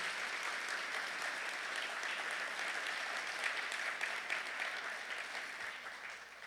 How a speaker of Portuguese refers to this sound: Ah, eu quero aplaudir, pode aplaudir, cara. É Jesus.